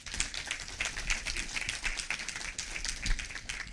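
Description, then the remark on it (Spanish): An audience claps to welcome visitors in a steady, dense burst of applause, many overlapping hand claps forming a bright, crackling wash that holds at an even level throughout with no voices over it. “Les damos la bienvenida con un fuerte aplauso, hermanos.”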